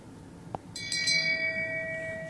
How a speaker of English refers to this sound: Um, but I mean, you know, this is the shame episode. So mm-hmm. go ahead, hit that bell one more time.